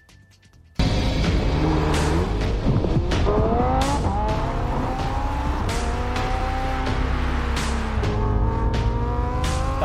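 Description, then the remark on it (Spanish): A Lamborghini Huracán Evo sports car engine roars to life after a brief quiet moment, then revs loudly, its pitch climbing and dropping through gear shifts as the car drives hard. “También los amantes de los autos saben lo importante que es medir la experiencia de un manejo de un Lamborghini. El nuevo modelo Huracán Evo hace justamente eso.”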